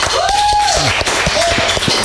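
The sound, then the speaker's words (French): A small group claps steadily during a live broadcast, the individual claps distinct rather than a dense roar, with a brief whoop or whistle rising above the clapping near the start. “vous applaudir aussi, ça fait genre il y a du public comme ça.”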